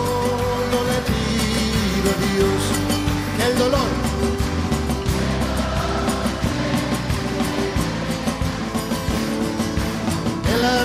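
Instrumental opening of a well-known Argentine song, played on the radio station RCF, with a full, steady band sound playing at an even, fairly loud level throughout and no singing yet.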